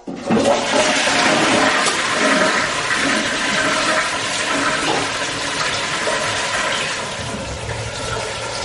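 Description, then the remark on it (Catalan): A toilet flushes with a loud, sustained rush of water that swirls and gurgles for several seconds, then eases slightly into a steadier refilling hiss without dying away. “I, i, i ja pots estirar la cadena que, que n'estic n'estic fart del mòbil, de les trucades i, i, i de ser l'únic ton, to que llegeix missatges per, per cap d'any, mentre els altres follen.”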